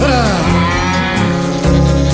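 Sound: ox mooing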